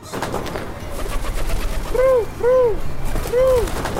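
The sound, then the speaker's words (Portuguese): A pigeon coos three times, short rising-and-falling hoots, the first two in quick succession and the third after a brief pause, over a steady rustling background. “Hey, aquele pombo roubou minha carteira.”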